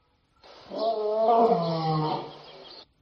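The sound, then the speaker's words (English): A lion in the wild, encountered by a group on a guided walk, roars once in a long, deep, rumbling call that swells and fades over a couple of seconds, heard clearly with no one speaking. “Look, it's a lion.”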